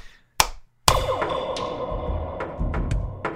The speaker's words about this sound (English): So next up, I'm going to give you three claps. I don't know if you need that, but just